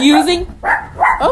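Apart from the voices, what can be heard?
dog barking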